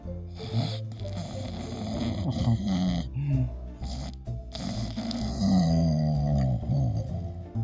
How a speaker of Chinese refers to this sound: 突然，旁边听到了一个打呼的声音。